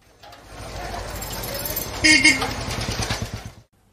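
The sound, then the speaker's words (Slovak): Busy big-city street noise with a throbbing engine idle, a steady wash of traffic and indistinct murmuring voices, plus a short high squeal partway through. “V ruchu veľkomesta?”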